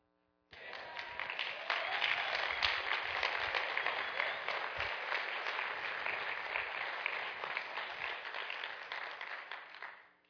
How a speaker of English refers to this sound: That was not meant to be hurtful. That cl- those claps, I, those were not meant to hurt you even more.